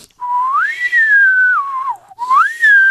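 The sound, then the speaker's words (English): A person whistles a smooth, continuous gliding tone that swoops up, holds, slides down, then rises again, imitating a theremin with no breaks between notes. Fairly loud, alone, no talking. “that's basically what a theremin sounds like, except it's an electronic sound.”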